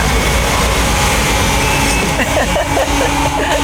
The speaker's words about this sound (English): Let's talk over the coffee grinder. Sat down in her franchise in Prince Frederick on Old Field Lane.